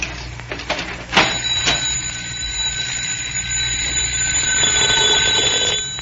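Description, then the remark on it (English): A doorbell, rung again by someone at the door, rings in one long, continuous electric burst of about five seconds, a loud, shrill metallic clatter that cuts off abruptly, preceded by a few faint clicks. “Look, he's going to ring again.”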